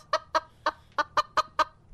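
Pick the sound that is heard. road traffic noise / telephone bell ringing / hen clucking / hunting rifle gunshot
hen clucking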